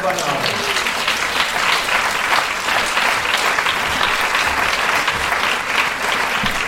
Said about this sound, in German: Und dafür einen ganz, ganz großen Applaus für den Verein